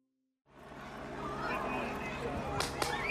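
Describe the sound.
A police taser fires with two sharp, quick electrical cracks near the end, cutting through a loud, chaotic crowd with people shouting and talking close by.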